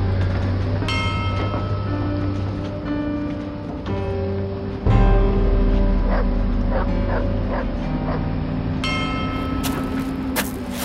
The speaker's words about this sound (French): On entendait les chiens des secouristes aboyer de temps en temps, noyés dans la poussière de béton omniprésente.